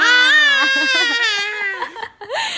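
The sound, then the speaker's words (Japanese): A toddler lets out a loud, high-pitched shout held for nearly two seconds, then after a brief pause gives a second, shorter rising yell. “叫んでます”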